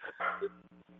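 Alan Sandage's dog barks in a couple of quick, sharp bursts, followed by a short whiny yip, all within about a second and with no talking over it.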